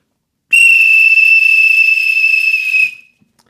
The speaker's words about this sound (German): Weil es der letzte Pfiff ist für dieses Jahr.